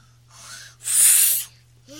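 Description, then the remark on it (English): A child mimics an airplane with breathy, whooshing vocal noises that swell into one loud, rushing burst in the middle, then fade before a short voiced hum at the end. “Hey, how does the airplane go? Do the airplane sound. Act like he's flying.”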